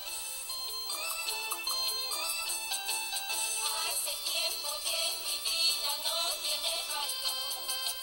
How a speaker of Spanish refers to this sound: Así que mira, el chiste que vos hiciste son cuatro damas cantando este, este, este, tipo de